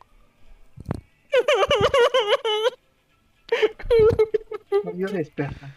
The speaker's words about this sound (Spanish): Yo llorando.